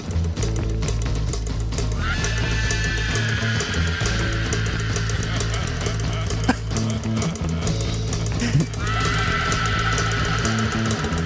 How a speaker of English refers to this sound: Uh, and then you get about 640 in, you get bass and drums just getting it. With some like screams, and creepy laughter. Wait for the laughter.